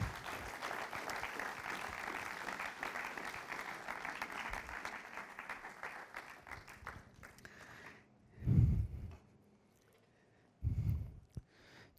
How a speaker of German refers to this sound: Lass uns einen herzlichen Applaus geben.